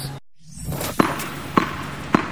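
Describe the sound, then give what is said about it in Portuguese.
A tennis ball bounces three times at a steady, even pace, each bounce a crisp thump over a faint background hiss, with no one speaking. “Este é o som de uma bola de ténis a bater.”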